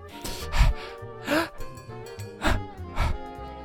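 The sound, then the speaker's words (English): A voice acts out a building sneeze: four breathy, rising gasps in an uneven rhythm, each hanging in the air, but the sneeze itself never arrives. “When you're about to sneeze, but it goes away.”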